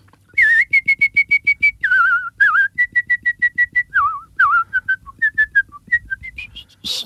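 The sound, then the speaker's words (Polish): A woman whistles a high, agile melody of quick staccato notes and short trills, clear with no talking, ending in a run that climbs to a very high pitch at the top of her range. “tutaj już mi się skończyła skala, ale e, gwiżdżę dosyć sprawnie, także jak trzeba będzie, to jeszcze mogę zagwizdać coś Państwu.”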